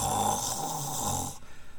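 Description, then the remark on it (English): A voice imitates a woman's loud snoring, a single drawn-out, rattling snore lasting over a second, harsh, then breaking off into quieter breathy puffs. “but then she starts snoring, right? Snoring, just a,”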